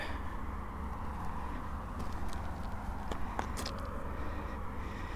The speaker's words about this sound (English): We've almost reached the end of today's walk at Ferry Bridge. You can probably hear the cars hurtling a long ferry bridge in the background.